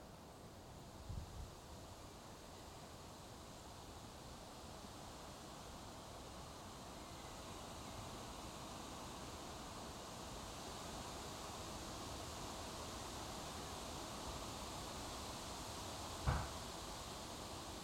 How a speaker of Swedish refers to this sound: Det enda som hörs här det är susande björkar.